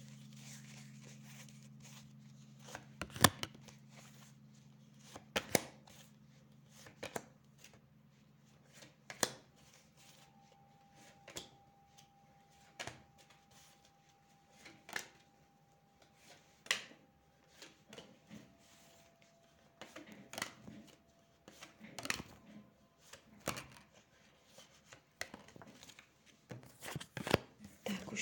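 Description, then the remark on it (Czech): Tarot cards being shuffled during a yearly tarot reading, a series of sharp riffling bursts and soft slaps at irregular intervals over a low steady hum, with no one speaking. “A já už se dívám na vaši fotku, míchám u toho karty a podíváme se teda spolu, jak se bude barvit to období 2022.”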